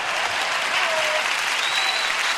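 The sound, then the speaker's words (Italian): An applause sound effect: a dense, steady wash of applause from a large crowd, loud and continuous throughout with no gaps, many hands clapping at once into a bright, hissing roar. “Eh, volevo ah, fare un applauso anche finto, Vuoi quelli del pubblico, grazie.”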